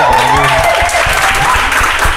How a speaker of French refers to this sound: Ils sont très bruyants Heureusement qu'on peut compter sur 75 personnes pour applaudir dans ce, euh, dans ce studio.